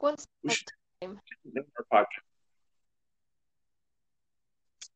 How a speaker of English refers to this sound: Sorry, you broke up.